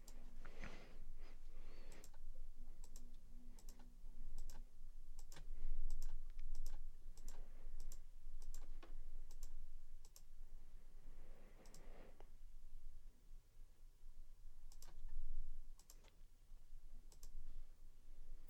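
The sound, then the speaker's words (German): Sharp mouse clicks repeat at an irregular pace, with faint soft scrolling rustles between them and no voices, as someone scrolls on a computer looking for a synth sound. “Ich muss mal gucken, wo der ist. Ich scroll mal ein bisschen hier rein.”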